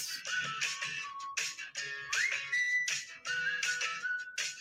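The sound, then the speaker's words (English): Someone whistles a wandering tune with sliding, wavering notes, breathy, carrying on steadily for several seconds with no talking. “I don't like that whistling, babe.”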